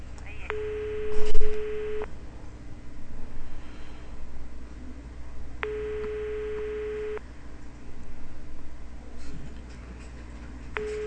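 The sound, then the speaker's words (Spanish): Two steady ringback tones on a phone line, each lasting about a second and a half with a long pause between, ringing over a low background hum with no one picking up, on a call placed on air by a Frecuencia Primera radio journalist and transferred to a ministry department. “Señor, está timbrando. Yo he transferido como debe ser, pero se en contestar”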